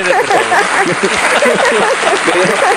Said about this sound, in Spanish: Aplausos para el buen